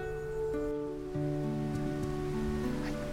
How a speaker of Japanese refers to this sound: 今日はいつものように八ヶ岳の、えー、大滝湧水からね収録してます